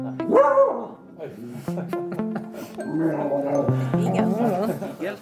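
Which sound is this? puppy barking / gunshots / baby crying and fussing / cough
puppy barking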